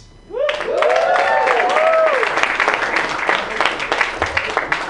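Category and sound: crowd, audience applause and clapping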